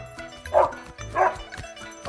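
A dog barks twice, two short woofs about half a second apart, over a low steady background, with no talking.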